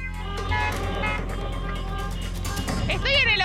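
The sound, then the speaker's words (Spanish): Many car and motorbike horns blare in overlapping, unbroken tones over a constant low rumble of traffic and crowd noise outdoors at a street protest at the Obelisco, with people arriving on foot, by car and by motorbike, voices mixed into the din. “La gente se trasladó hasta acá, no solo caminando, también en auto, en moto, las bocinas están que no paran”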